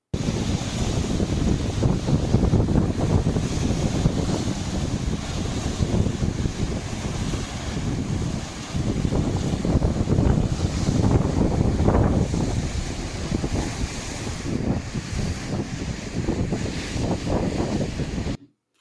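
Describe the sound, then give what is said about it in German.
Strong gusting wind roars into the microphone while heavy waves crash and churn, a constant loud rumble of surf that swells and dips without pause. “So unglaublich, das sieht wirklich so aus wie bei dem, wie man, als ob man beim Ozean wäre, wirklich.”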